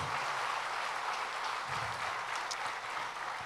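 An audience at a church service claps their hands together in praise, a dense, steady wash of many overlapping claps that holds at an even loudness throughout, with no voices rising above it.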